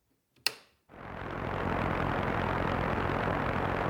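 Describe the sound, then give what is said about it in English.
A sharp click, a brief pause, then loud, steady radio static from an empty frequency that swells in quickly and hisses on without any voices or music. “The radio frequency's just full of static.”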